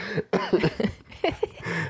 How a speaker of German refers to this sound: vom Fake-Husten zum richtigen Husten.